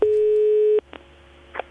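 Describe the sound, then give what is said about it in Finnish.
A single steady telephone ringing tone sounds clearly for just under a second, then cuts off into faint line noise and a couple of soft clicks as an outgoing phone call, made earlier in the week, connects. “Kuunnellaan tähän yksi puhelu, jonka tein alkuviikosta.”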